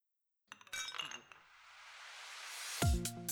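household object, beer glasses clinking

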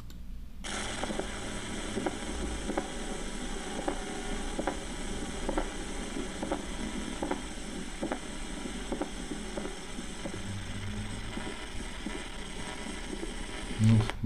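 medical sound, diastolic heart murmur

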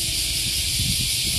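insect, cicadas buzzing outdoors

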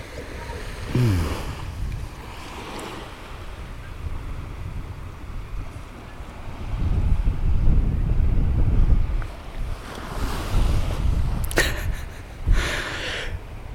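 nature, sea waves with wind

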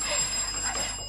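household object, doorbell ringing

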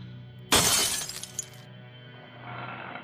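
sound effect, glass shattering

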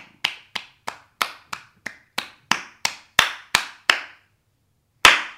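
human body sound, hand clapping

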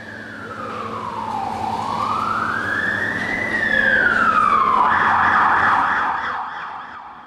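vehicle, fire engine siren

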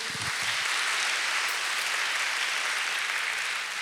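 crowd, audience applause

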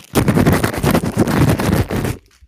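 household object, bag being crinkled

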